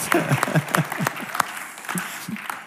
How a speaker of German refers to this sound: Wir können dem Gott doch einen Applaus geben am Anfang.